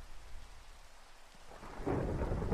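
Steady rain hisses throughout while a deep thunder rumble swells and grows louder in the second half, rolling low and heavy beneath the downpour. No voices.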